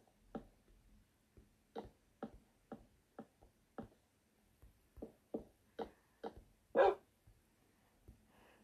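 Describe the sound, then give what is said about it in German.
A dog barks in a long series of short, sharp yaps, about a dozen in irregular rhythm, with one louder, higher bark near the end. No one speaks. “Bell du nur.”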